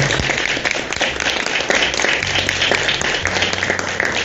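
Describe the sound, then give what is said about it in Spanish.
Sustained applause from an audience, renewed for Paralympic athlete Mauricio "Coqui" Barbure for his participation in the Tokyo Paralympic Games: a dense, steady wash of many hands clapping at even loudness for several seconds, with a low hum underneath and no one speaking over it. “Renovamos el aplauso para Coqui, muchísimas gracias.”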